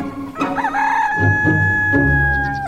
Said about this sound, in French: Avant, euh, il y avait des coqs dans des fermes, et après ils faisaient cocorico très fort.